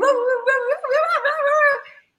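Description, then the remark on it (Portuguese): Sled dogs at a snow-dog breeding refuge howl together in a sustained, wavering chorus of overlapping voices, fairly loud, lasting about two seconds before cutting off; no one speaks. “Bom, na hora que é, ela foi embora com o carro, eu comecei a ver latido de cachorro.”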